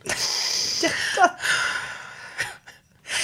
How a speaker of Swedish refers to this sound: Nej, du börjar gråta nu. Nej, älskling.